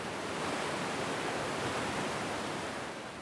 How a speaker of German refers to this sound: Über Wochen hinweg hatte der Main im Februar und März Hochwasser. An der Staustufe Astheim bei Volkach schossen die Wassermassen über die Sperrwehre bis zu 400 Kubikmeter pro Sekunde. Wasser im Überfluss.